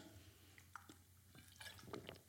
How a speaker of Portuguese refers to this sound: mais um golico de merda d'água